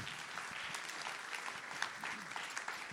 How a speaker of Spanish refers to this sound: ¿Estamos acá? ¿Le das un aplauso al Señor?